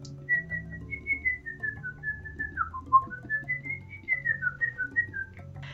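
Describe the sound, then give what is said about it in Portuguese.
A person whistles in imitation of a capuchin monkey's call: a thin, steady high whistle that wavers and dips briefly midway, lasting several seconds over a faint low background hum. “Eu me lembro que parecia um assobiozinho, tipo”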